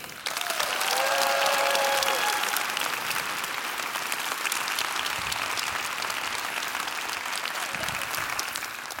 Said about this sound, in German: Das ist ein riesiger, fetter Applaus, okay? Und das, das üben wir jetzt. Dafür haben wir wieder hier unsere tollen Pappen. Einmal Applaus bitte.